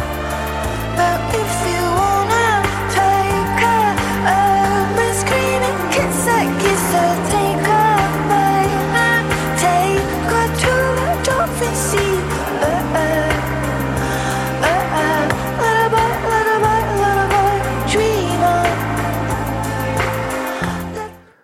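A synth-heavy indie rock song plays loud and steady for the whole stretch, with a driving, shifting bass line under dense layered synths, then cuts off abruptly at the end.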